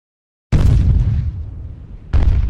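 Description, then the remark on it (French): Two heavy cannon shots boom as the French fleet bombards Tourane on 1 September 1858, the first rolling into a long, deep rumble that fades before a second blast cuts in sharply. No voices are heard. “Le canon tonne.”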